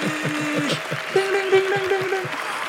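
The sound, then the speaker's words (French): Canned stadium applause added in a studio to imitate the Zénith de Paris: a dense, steady roar of clapping from a large crowd, with a few sustained tonal cheers or whistles rising above it, holding at an even loud level throughout. “mets des bruits du Zénith de Paris voilà.”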